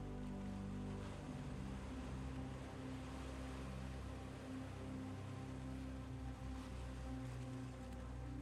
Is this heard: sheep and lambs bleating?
no